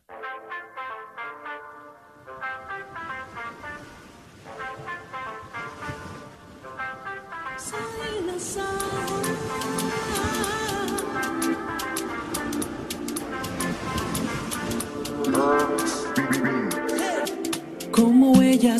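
The instrumental intro of a new song by a Venezuelan Catholic singer-songwriter starts with a light, plucked melody, then a fuller band with steady rhythmic percussion kicks in and builds louder toward the end. No singing is heard yet.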